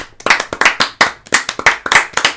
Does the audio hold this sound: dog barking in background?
no